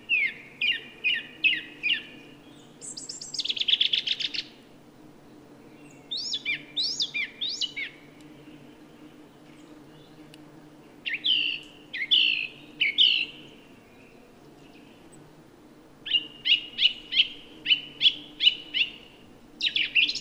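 A song thrush sings bright, varied phrases, several made of quickly repeated notes, separated by short pauses, over a steady low drone of buzzing bumblebees. No one speaks.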